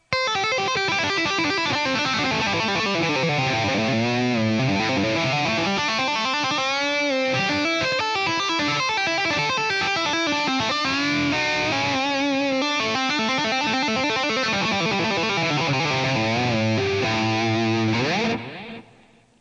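A loud, heavily distorted electric guitar plays a fast tapped pentatonic lick, notes cascading up and down continuously for about eighteen seconds before stopping abruptly, with no talking.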